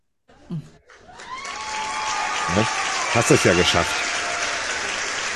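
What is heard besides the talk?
applause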